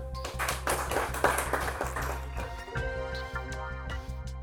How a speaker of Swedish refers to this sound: Då sätter vi punkt för det här seminariet. En rejäl applåd.